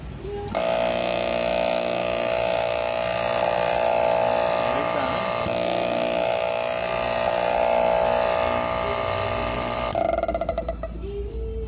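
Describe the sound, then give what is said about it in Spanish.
An air conditioning compressor that had been stuck is restarted after being unblocked on both sides during a repair. It kicks on and runs with a steady, loud droning hum full of tonal whine for about nine seconds, then shuts down into a brief rattling clatter. “Repair of the air conditioning compressor, which was stuck”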